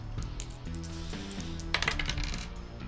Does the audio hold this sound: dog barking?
no